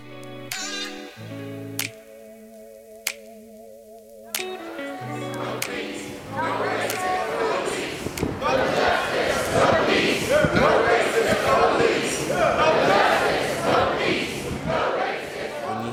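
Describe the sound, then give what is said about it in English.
A short sustained musical tone opens, then a loud protest crowd takes over, chanting in steady rhythmic bursts with many voices shouting together until the end. “Majority of the time, what you will hear is raw emotion and the passion the protesters have.”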